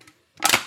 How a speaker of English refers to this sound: We made it to ten episodes. Pop a bottle for that. Celebrate.